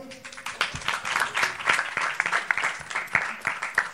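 An audience applauds steadily, many hands clapping in a dense, crackling patter that holds fairly even in loudness for several seconds, with a faint voice briefly underneath at the start; the applause is for a young woman from the audience coming up to take part in a show.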